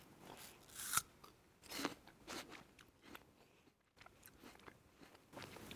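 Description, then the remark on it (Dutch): Crisp crunching as teeth bite into a firm Pink Lady apple, a sharp crack near the start followed by several wet, snapping chews spread irregularly over a few seconds, with no talking. “Nee, dit is ook een Pink Lady. Want heb je dezelfde gepakt? Ja, ik heb dezelfde gepakt. Oh ja, je hoort het al aan het knakken.”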